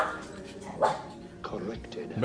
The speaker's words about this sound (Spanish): Y, por favor guarden los perros, es que de verdad yo no soy de perros.